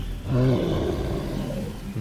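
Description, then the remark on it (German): A creature breathes and snorts hard, a loud, low, rough rumble with a growling, roar-like edge that carries on steadily for about two seconds, with no talking. “Es atmet und schnaubt hart und laut.”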